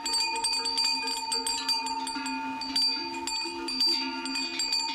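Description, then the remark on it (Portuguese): Many metallic sheep bells worn by a flock of sheep clank and jangle continuously in an irregular overlapping patter, as from a moving flock, steady with no voices. “E a resposta correta é os chocalhos que se usam nos rebanhos de ovelhas.”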